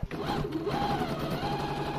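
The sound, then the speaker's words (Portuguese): A sewing machine runs steadily, its needle clattering in a rapid, even rhythm with a mechanical hum underneath, continuous throughout, as a woman sews items for the almond blossom festival in the village of Alta Mora, Castro Marim. “Os olhos de Rosa não se movem da máquina de costura.”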